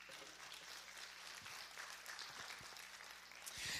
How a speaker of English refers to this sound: And that's what the kids call a pity clap.